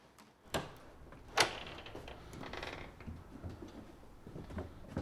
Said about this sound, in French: Encore une porte. Et puis, encore une porte.